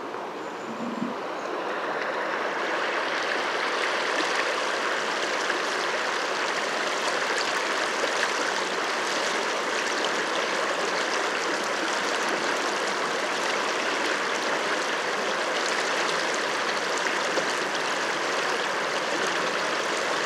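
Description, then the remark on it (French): The Drôme river rushes steadily over its pebble bed, a dense, continuous wash of babbling water that stays loud and even throughout, with no voices. “Et voici maintenant la Drôme sur son lit de galets.”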